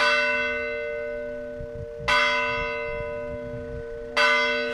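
A church bell in Sendim, Miranda do Douro, rings out in slow, spaced strikes marking the day, each clang bright and resonant with a long ringing decay that hums on until the next stroke, with no voices.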